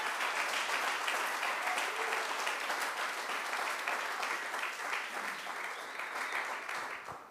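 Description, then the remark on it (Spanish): A crowd claps hands steadily and loudly to the King of Kings, a dense sustained wash of applause that fades slightly toward the end, with no voices standing out. “dele palmas al rey de reyes.”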